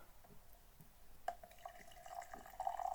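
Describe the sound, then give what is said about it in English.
A new espresso machine brewing: coffee drips and trickles into a cup beneath a steady mid-pitched pump whine that grows gradually louder over the three seconds, with no voices. “I got a new coffee maker, by the way. New espresso machine.”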